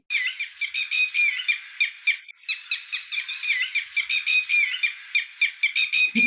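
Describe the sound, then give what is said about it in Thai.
Several red-wattled lapwings call at once in loud, overlapping bursts of sharp, repeated notes, a continuous rhythmic chorus that fills the whole recording. “ชื่อคลิปคือนกกระแตแต้แวดร้องเพาะๆร้องกันหลายตัวคืออันนี้ก็คือมันเสียงมันร้อง แล้วก็คนก็ฟังเป็นกระแตแต้แวดก็เลยตั้งชื่อนี้”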